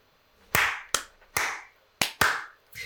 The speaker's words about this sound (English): And of course, Roy slash Aaron starts clapping.